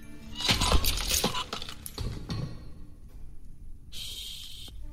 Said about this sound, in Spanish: tomó los candados con su manita y los destrozó como si fueran terrones.